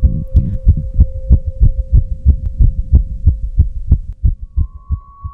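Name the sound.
pounding heartbeat sound effect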